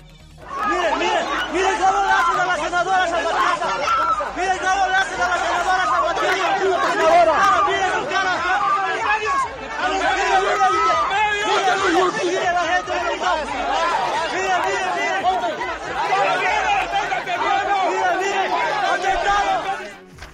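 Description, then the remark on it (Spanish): A loud crowd scuffle in Bolivia as security forces block Senate president Adriana Salvatierra from entering Parliament on a Wednesday: many voices shouting and talking over one another in a dense, unbroken commotion that holds steady for about twenty seconds. “Escuchemos cómo se vivió esta trifulca allá en Bolivia.”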